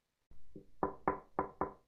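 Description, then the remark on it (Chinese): Someone outside softly knocking on a toilet door, about five light raps in a steady, even rhythm, the first one fainter than the rest, with no voices. “此时外头突然有人轻轻的敲门， 是我，你上完厕所了没有啊？”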